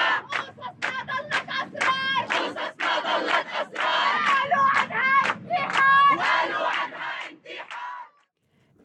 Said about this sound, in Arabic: وما اقتصر نشاطه على السوشيال ميديا كمان شفناه عم بنظم مظاهرات واعتصامات بالشوارع احتجاجا على جرائم القتل ضد النساء وعلى كل المنظومة اللي بتشجع العنف بكل أشكاله وبتتسامح مع المعنفين